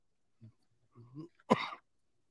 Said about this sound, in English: Starting off with a bang. Every time I try to talk, I want to cough now.